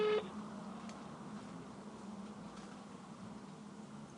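A telephone ringback tone over a phone line as Radiograd radio calls a guest to put him live on air: a short steady tone at the start and another about four seconds later, with a low hiss of line noise between them and no talking.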